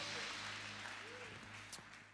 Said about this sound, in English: Clap your hands if you receive that change.